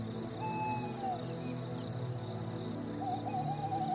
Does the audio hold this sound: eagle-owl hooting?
yes